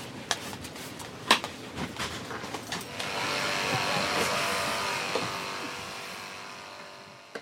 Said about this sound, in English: Here's what it sounds like on a plane before any passengers board.